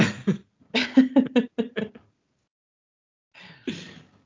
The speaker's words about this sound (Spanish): Le da la tos.